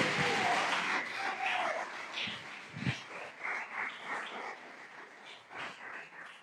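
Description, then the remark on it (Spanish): An audience at a morning church service claps in praise and worship of Christ, a dense, steady wash that gradually thins into scattered, uneven claps, with a few soft murmurs mixed in as the applause fades. “No hay mejor vida que vivirla para el Rey de Reyes y Señor de Señores que está aquí esta mañana y a que le damos un aplauso en alabanza y en adoración.”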